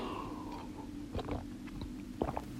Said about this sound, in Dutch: En, pardon, ik zal even een slokje water pakken, anders ga ik zo de hele podcast vol hoesten.